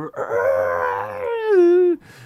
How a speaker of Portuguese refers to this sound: E tem um, um, um fato que eu queria comentar sobre a cobra, cara. Foi um dos efeitos especiais, é que ela grita, né? Ah, isso é maravilhoso, velho.